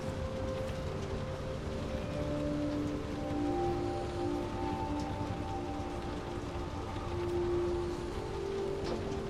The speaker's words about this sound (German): Plötzlich spürst du, wie der Zug in eine sanfte Regenwand einfährt hörst das leise Trommeln des Regens auf dem Dach des Zuges. Ein beruhigendes Geräusch, das dich sofort tiefer in deine Entspannung versetzt.